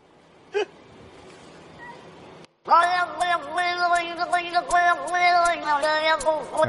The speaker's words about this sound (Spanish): como maullando y eso él coge, hace un loop y, le pone música